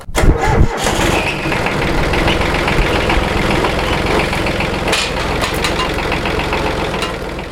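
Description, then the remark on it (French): A micro-tractor engine on a farm cranks briefly and catches, then settles into a steady, loud, rumbling idle with no one speaking. “On est tombé sur une opportunité à l'installation qui nous a permis d'acheter un micro-tracteur pas trop cher.”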